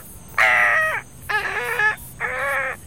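A carrion crow gives three loud, harsh caws, each about half a second long, evenly spaced with short pauses between them. No voices are heard.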